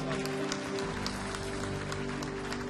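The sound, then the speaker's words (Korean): An audience at a worship service applauds in thanks to God, in a steady, dense wash of clapping that holds at an even level throughout, with a low sustained hum underneath and no talking. “기뻐하시는 하나님 앞에 감사와 영과 박수를 도록 하겠습니다”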